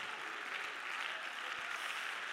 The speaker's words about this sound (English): Oh, let's clap our hands and love the Lord tonight, church.